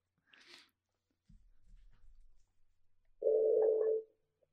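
A brief crackle of static and some low rumbling, then a loud, steady mid-pitched telephone tone holds for under a second as a call drops and redials. No one speaks.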